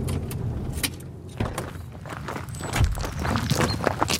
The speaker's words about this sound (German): Wir lassen das Auto stehen und schlendern ein paar hundert Meter durch die Landschaft, vorbei an Oliven, Feigen und Mandelbäumen.